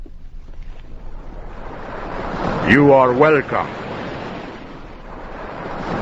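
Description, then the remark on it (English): Steady roaring surf of ocean waves crashes continuously on rocks below a lighthouse under low storm clouds, and a man's voice briefly speaks over the churning water in the middle. “The man's voice thundered down the rocks louder than the noisy waves.”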